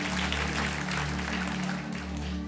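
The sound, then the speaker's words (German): Steady, dense audience applause for a church location joined live to the service, a continuous crackle of many hands clapping at an even loudness over a low steady hum, with no voices standing out. “Hey, können wir unseren Standort in Lob nochmal einen Riesenapplaus geben?”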